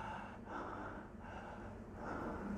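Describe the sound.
A person demonstrates the heavy open-mouth breathing of patients whose noses are obstructed, with about three loud, airy breaths in a steady rhythm and no talking.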